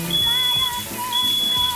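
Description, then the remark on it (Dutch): A smoke alarm, set off by heavy smoke, blares with two long, shrill, high-pitched tones separated by a brief pause, loud and steady over a rumbling background. “Straks gaat het brandalarm af.”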